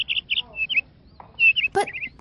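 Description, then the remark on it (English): A bird chirps in quick, bright bursts, breaking into one harsh squawk before returning to a fast twittering trill. “I'll prescribe you this bird.”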